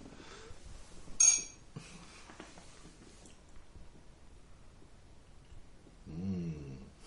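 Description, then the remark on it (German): A single bright, ringing clink of glasses touching in a toast, sharp, followed by quiet room noise and a brief murmuring voice near the end. “Prost.”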